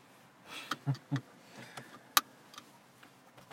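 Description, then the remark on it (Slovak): The dashboard clock of a DS7 Crossback, Louvre version, is driven by electric motors and turned by pressing a button. It whirs and rattles faintly as it rotates, giving off a series of irregular small ticks and soft knocks, with one sharper click partway through. No one speaks. “Jak drnčia hodinky, keď sa otáčajú. Elektromotory, no.”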